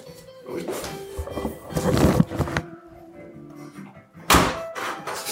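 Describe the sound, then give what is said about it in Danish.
A door is pushed shut with a solid thunk near the end, preceded by rustling, shuffling movement and faint background noise. “Ja, så lukker din dør så.”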